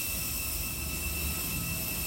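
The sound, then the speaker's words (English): A jet engine roars steadily on the tarmac as passengers walk off a plane without a jet bridge into equatorial heat. A deep rumble sits underneath and a thin, high-pitched turbine whine holds constant throughout. No voices are heard. “so we were just coming off the plane and it's like well when you don't have one of those like tunnels you walk through you just walk into the heat of the equator heat.”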